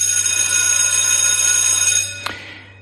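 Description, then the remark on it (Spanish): A loud school bell rings steadily for about two seconds at a school, marking the start of the school day, then cuts off with a small clack and fades away in a brief ringing tail. No one speaks. “Es el sonido que marca el inicio de la jornada escolar, que da comienzo al aprendizaje en un sistema educativo bastante tocado.”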